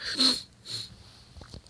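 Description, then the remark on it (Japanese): Two quick, breathy sniffles through a stuffy nose, followed by a few soft low thumps in an otherwise quiet moment with no talking. “鼻をすすりながら喋っておりますが”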